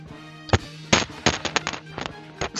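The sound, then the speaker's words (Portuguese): A microphone being dropped: a loud thud followed by a handful of irregular, sharp knocks and clatters as it bumps around, over a low steady hum with no talking. “Derrubei o microfone aqui.”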